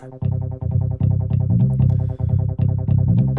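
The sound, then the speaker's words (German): A fast, pulsing low synthesizer pattern repeats in steady bursts, with a deep bass line entering underneath and bright electronic tones layered on top, loud, with no voices. “Ein tieferer Synthesizer nimmt auch dieses schnelle Tempo auf. Und hier setzt auch ein Bass ein.”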